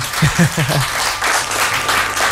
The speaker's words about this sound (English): All right, audience, what do you think of that, man? Give us a round of applause, please. come on, come on, come on.